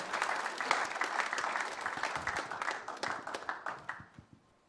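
An audience at a prayer conference bursts into sustained applause to welcome a speaker, dense overlapping claps at a steady loud level that thin out into a few scattered claps before fading at the end.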